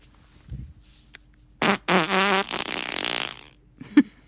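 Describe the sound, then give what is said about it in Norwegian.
A loud, drawn-out recorded fart, played back, with a buzzy, wavering pitch that rises and sputters across a couple of seconds, ending in a short final puff; no one talks over it. “Skal vi bare kjøre i gang med første fis, da, eller? Kjør første fis.”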